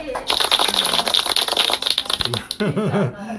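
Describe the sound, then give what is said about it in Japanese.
A burst of dense, lively clapping from a small group at a radio broadcast from a disaster-affected area lasts a couple of seconds, then fades as a voice starts speaking. “今内部で拍手を。”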